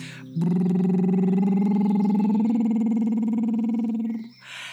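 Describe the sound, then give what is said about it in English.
A voice imitates a blue-footed bird's call with one long, loud, drawn-out throaty cry that holds steady for about four seconds, slightly rising in pitch before cutting off. “I'm Boris the Bird God, Blue Feet. And I make a noise like this.”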